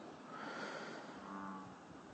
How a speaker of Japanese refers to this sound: なんかでっかいカエルが鳴いてるなということで、あの、現在2014年6月下旬です。